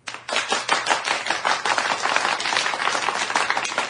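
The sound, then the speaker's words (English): A clapping sound effect played for Doctor Who's 50th anniversary: a rapid, dense flurry of sharp hand claps that keeps going steadily for a few seconds, fairly loud and with no voices over it. “And he gave us the clap.”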